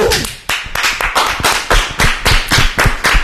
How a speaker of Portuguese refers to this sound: Eu tava em pé agora batendo essa palma